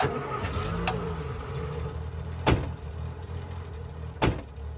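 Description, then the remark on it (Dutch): A car engine idles with a low, steady rumble while several sharp thuds ring out, like car doors being slammed shut one after another, as people are pushed into the car. “Enige tijd later werden we naar buiten gebracht en in een auto geduwd.”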